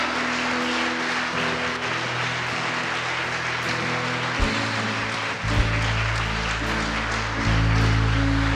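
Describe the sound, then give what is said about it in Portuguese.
An audience at a worship service claps steadily throughout to applaud the Lord, a dense, continuous wash of applause, while sustained low keyboard chords swell beneath it and grow louder toward the end. “Comece a aplaudir o Senhor.”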